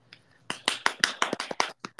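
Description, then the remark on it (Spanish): A quick burst of hand clapping as applause for the speaker's first day in therapy, around ten sharp claps in a slightly uneven rhythm, fairly loud and with no talking, following a brief faint moment at the start. “De hecho, hoy fue mi primer día en terapia, así que un aplauso para mí”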